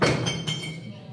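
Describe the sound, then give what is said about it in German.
A drinking glass falls to the floor and shatters in a football fan house: a sharp crash followed by several quick, bright clinking impacts with ringing glassy tones, fading within about a second. “Hätte das nicht vor dem Spiel passieren können, Scherben bringen Glück. Und das erste Glas fällt.”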